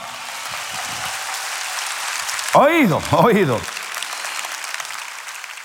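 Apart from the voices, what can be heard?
audience applause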